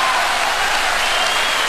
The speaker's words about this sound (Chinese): 哎，那我们掌声要送给这位创业者啊！